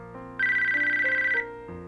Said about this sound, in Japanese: それを見計らったかのように電話が鳴った